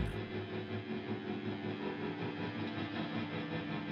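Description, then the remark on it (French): A generator engine runs steadily in a forest in the afternoon while being repaired, a continuous droning hum with a faint rattling vibration that holds at an even volume throughout, with no voices. “Cet après-midi, réparation du groupe électrogène.”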